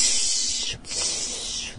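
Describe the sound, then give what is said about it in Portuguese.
A voice imitates the chest wheeze of bronchitis with a steady, airy hiss that breaks briefly partway through, then resumes for the rest of the short sound. It is fairly loud, with no other talk. “Agora, a bronquite é aquela questão, até aquele chiadinho no peito, aquele gatinho, né, ali, parece um”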